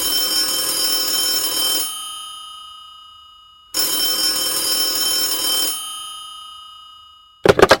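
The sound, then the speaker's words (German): An old mechanical telephone bell on a telephone from the 1970s rings loudly in two long, rattling bursts, each fading into a ringing tail, followed by a brief clattering burst at the very end. “Schön, dich zu hören, vor allem hier an meinem äh, Telefon aus den 70er Jahren.”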